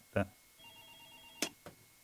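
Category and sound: signal or alarm, telephone ringing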